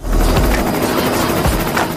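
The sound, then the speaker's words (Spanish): A loud, steady helicopter roar with a rapid low thumping of rotor blades, without any voices throughout, as the helicopter flies passengers over the city, headed for the Cajón del Maipo. “Entonces, subieron a un helicóptero con rumbo desconocido y la primera pregunta de Anastasia Steele a Christian Grey fue...”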